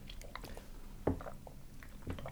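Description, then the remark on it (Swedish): A last sip of blueberry soup that has gone a little cold: quiet wet mouth noises and small swallowing clicks, with one sharper slurp partway through. No one speaks. “Och eh, vi har fortfarande lite blåbärssoppa kvar. Ja. Vi tar en sista slurken, leker att vi är i Mångsbodarna.”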